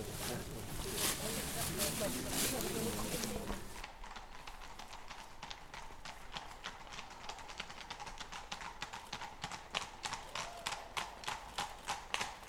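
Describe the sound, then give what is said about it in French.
Horses' hooves clip-clop in a steady, brisk rhythm on hard ground as riders set off on horseback into the forest for a hunt, following a few seconds of loud, rushing noise at the start, the hoofbeats growing sharper toward the end. “Les cavaliers rejoignent la forêt.”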